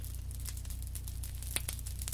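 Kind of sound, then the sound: nature, rain starting to fall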